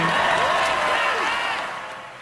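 A large indoor crowd boos loudly, a dense, sustained roar of many voices with drawn-out wavering tones, easing off slightly toward the end. No one speaks over it.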